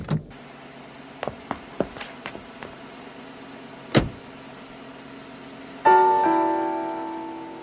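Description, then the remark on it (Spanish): Inside a car, a series of quick mechanical clicks as a man quickly gets in and locks the doors, then a solid thump, over a low steady engine hum as he starts the engine and lets it warm up for some seconds; a bright tonal sound swells near the end and slowly fades. “subió rápidamente a su carro, cerró las puertas con seguro Encendió el motor y lo dejó calentarse algunos segundos.”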